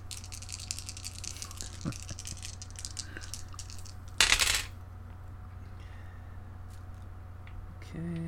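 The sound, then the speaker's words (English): Amid a quiet room hum, four dice give a brief, loud clattering rattle and clack down onto a table, then everything falls still again. “I will put down one of With these what? four dice.”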